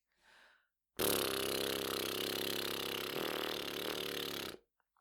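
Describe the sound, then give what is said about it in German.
After a soft breath, air is blown slowly and steadily through loosely closed lips with a very small opening, a facial relaxation exercise, for about three and a half seconds: a loud, buzzy, rumbling lip trill with a breathy hiss that stops abruptly. “die Lippen ganz locker aufeinander legt und dann ähm, sozusagen langsam Luft durch die Lippen pustet.”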